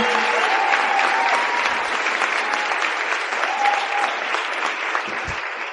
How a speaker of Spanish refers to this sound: Por eso quiero pedir un fuerte aplauso para la organización de este seminario, que está haciendo que esto salga de manera espectacular.